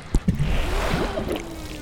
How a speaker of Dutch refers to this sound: Het water kolkt tegen de boeg.